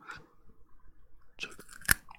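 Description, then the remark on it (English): Crunching into a raw carrot: after a quiet start, a few sharp, crisp bites snap out in quick succession, the last one the loudest, with no talking. “here comes the carrot cutie choo choo”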